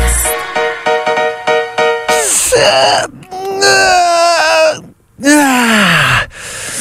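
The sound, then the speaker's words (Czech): A voice lets out a quick run of short strained grunts, then long drawn-out groans that rise and fall, ending in a deep descending moan, as a person stretches. Loud, with no words spoken. “Ježíš, znáte ten pocit, jak se protáhnete a úplně vám tělem projede takový to brnění a úplně vykopnete nohy, jakože...”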